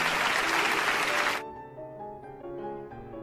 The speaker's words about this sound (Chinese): 茶壶嘴是朝里弯的。人群中爆发出雷鸣般的掌声。